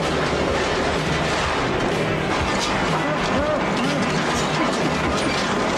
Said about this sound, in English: They laughing. Did you hear that? Uh, yeah, I did. That damn bulldozer was laughing.